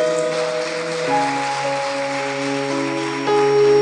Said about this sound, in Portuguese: Deus está aqui, queridos. Vamos dar um forte aplauso ao Senhor Jesus.